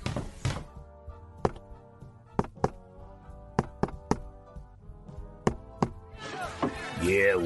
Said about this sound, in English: I would like to come in, sir. I did the secret knock. I didn't hear no secret knock.